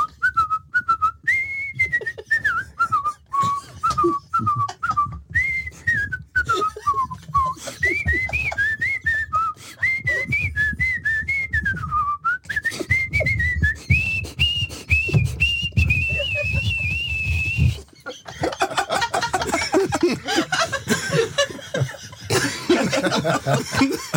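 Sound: person whistling a tune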